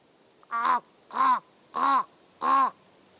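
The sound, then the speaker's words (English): A person imitates a raven's call into an old oak forest in southwest Finland near Tampere, in winter with snow on the ground: four hoarse, croaking caws, evenly spaced about half a second apart, fairly loud, with quiet pauses between them. “It was in the winter, and the snow was on the ground, and I started to call a Gallic raven call into the forest.”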